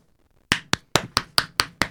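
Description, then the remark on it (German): Seven sharp hand claps in a quick, steady rhythm after a brief moment of quiet, each one a crisp, bright smack standing alone with no voices, clapping for the work of the Spiel des Jahres jury. “Ja, klatsch, klatsch, klatsch.”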